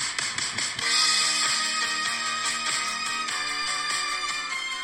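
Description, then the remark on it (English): A phone ringtone, a song just set as the new ringtone, plays for an incoming call. It is a bright, melodic tune with stepped notes, loud, continuing steadily for several seconds with no voices over it. “Oh, they're ringing again.”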